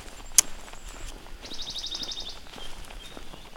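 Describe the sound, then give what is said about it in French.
Birds singing outdoors: a thin high whistle, then a quick trill of about ten rapid, repeated high notes, followed by fainter calls, over soft footsteps and a sharp click. “Ça va les oiseaux”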